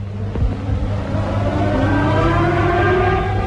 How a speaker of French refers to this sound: Et pour la première fois, le cri des sirènes devient un chant.